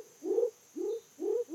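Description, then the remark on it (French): A Savage's frog, recorded in Costa Rica near a village by a stream, calls in a steady series of low, hollow notes, each swelling briefly with a slight upward slide, roughly three per second, over a faint constant high-pitched whine. “Et donc là, c'est la grenouille de Savage que j'ai enregistrée près d'un village, à proximité d'un cours d'eau.”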